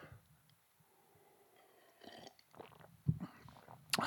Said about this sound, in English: Big gulp, big gulp for me. um, I'm gonna take another sip of my tea.